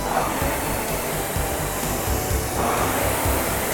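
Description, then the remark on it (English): A steady, airy whirring of a rowing machine flywheel runs fairly loud throughout, with a broad rushing hiss and faint rhythmic surges as the strokes push it, during a workout at increased intensity and a 24 stroke rate. “Make your flywheel a little louder.”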